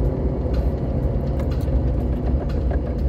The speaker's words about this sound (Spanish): Estoy llegando a lo que tiene que ver con un paso a desnivel aquí en Cancún. Hay mucho tráfico, quién sabe qué pasó. Inclusive hay patrullas haciendo su chamba, los de tránsito, pero bueno.